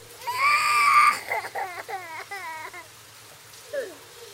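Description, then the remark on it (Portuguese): Two children cry in the middle of a deserted road in front of a large abandoned house, in fog: a long, high wail, then a series of shaky sobbing bursts, with steady rain hissing underneath throughout and a brief whimper near the end. “Logo, o som de choro chama a atenção, diferentemente do som que vem junto com a chuva. Esse choro é bem real.”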